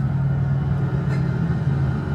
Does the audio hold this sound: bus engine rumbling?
yes